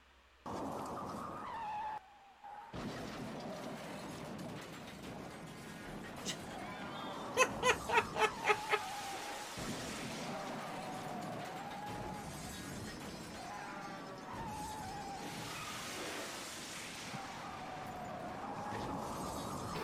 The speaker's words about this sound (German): The alternate turns into car and causes an extremely prolonged pile up for no reason and Mark dies, lol. Äh, vielleicht solltest du das Video jetzt ein bisschen runterdrehen, wird fucking laut.